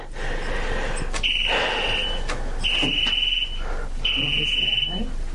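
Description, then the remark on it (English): A tornado warning alert tone sounds three times, each a steady high-pitched electronic beep about a second long, evenly spaced over background noise with faint voices. “Oh, wait a minute. It's a tornado.”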